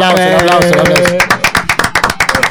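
A sustained voice or tonal sound gives way to audience applause for an arriving guest on a radio program, a run of sharp, loud claps in a fairly steady, quick rhythm that continues to the end.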